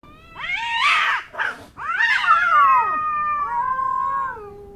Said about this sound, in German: Aber die Katze verstand keinen Spaß, sprang ihm ins Gesicht, spie und kratzte.